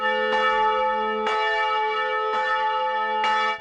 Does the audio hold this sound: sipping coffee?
no